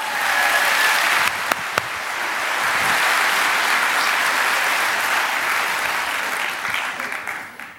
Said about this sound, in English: Thank you. Give him a really big round of applause.